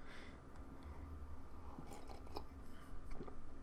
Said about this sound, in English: Sorry, I needed a sip of coffee there.